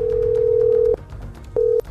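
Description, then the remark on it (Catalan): A telephone tone for a disconnected number in Kashmir, India, after phone lines to the region were cut: a steady, clear electronic hum lasting about a second, a short pause, then a briefer repeat of the same tone, with no voices. “The number you have called has been temporarily disconnected.”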